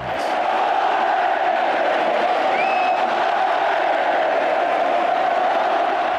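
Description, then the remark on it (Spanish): A huge stadium crowd roars and chants olé as Luis Fernández makes bullfighting passes using an ikurriña flag as a cape, in a steady, dense wall of cheering that stays loud throughout, with a brief shrill whistle rising above it midway. “Fue la noche que Luis Fernández sacó su vena andaluza y dio unos pases toreros con una icurriña por capote, mientras la grada le acompañaba con oles.”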